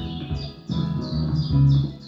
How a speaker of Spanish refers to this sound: ¿Viste, mamá? Ese pajarito se parece como el que estaba en la casa de la abuela.